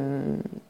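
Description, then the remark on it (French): A pet cat's brief purring trill: a steady low tone that breaks into a few quick pulses before fading, with no one speaking. “si vous avez entendu un bruit bizarre, c'est mon chat qui roucoule.”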